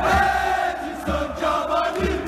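A stadium crowd sings a chant in unison, a loud, dense mass of voices carrying a steady rising-and-falling melody with rhythmic pulses, no other sounds breaking through.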